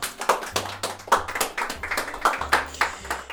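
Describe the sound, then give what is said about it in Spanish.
A small group claps with sharp, uneven hand claps for a few seconds to welcome a guest, steady, with a low hum running underneath and no one speaking. “antes de entrar en materia, pido un aplauso para”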